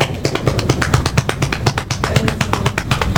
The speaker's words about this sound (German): Die, ganze Zeit angefangen, sich auf den Bauch und den Oberschenkel rumzutrommeln. Das habe ich total ich kann, das, ich kann das ja mal kurz in der Aufnahme simulieren.